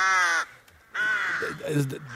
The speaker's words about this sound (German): Das sind Krähen, habe ich hier bei uns aus dem Audioarchiv äh, mit Hilfe einer netten Kollegin bekommen.